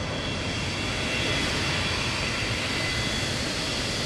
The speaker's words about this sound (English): And it took a few hours, and I remember a, a big plane lands.